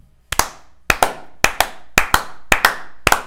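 Hands clap in a steady rhythm of quick double claps, six pairs in about three seconds, close and crisp with no talking.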